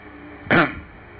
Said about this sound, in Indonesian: Saya dehem yang ketiga. Mendengar dehemku, amiku kenal suaraku.